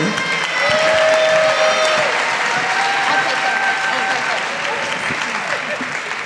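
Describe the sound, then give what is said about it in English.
Sustained audience applause for a poet and performer being introduced on stage fills the space, a dense wash of clapping with a few cheers and whistles rising above it, steady and loud for several seconds before easing slightly. “Let's give a hand of applause for Monique Franklin.”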